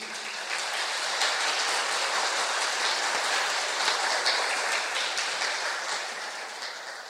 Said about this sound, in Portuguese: Vamos já aplaudir o Senhor por isso?